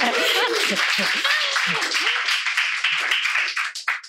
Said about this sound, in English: And you yeah, we can clap again. Absolutely.